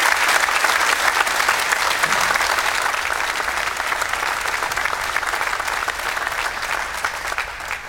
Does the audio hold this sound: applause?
yes